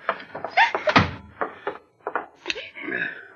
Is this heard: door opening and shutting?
yes